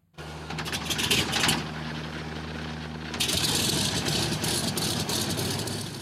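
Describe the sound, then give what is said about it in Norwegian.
Vintage DC-3 propeller aircraft engines starting up, a type first flown in 1935: a low, steady droning hum with harmonic tones, then a rougher, louder roar after a few seconds as the engines catch and the props spin. No talking. “Legendariske DC3 idet motorene starter og propellene begynner å snurre.”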